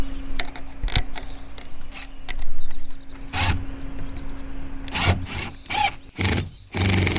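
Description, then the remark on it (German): A cordless drill starts a hole in wood, a steady low motor hum beneath irregular bursts of rough, scraping crunches as the bit bites in. No one speaks. “Warte mal, ich bohre erstmal an hier.”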